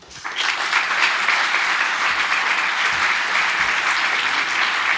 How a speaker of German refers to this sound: Dafür nochmal Applaus.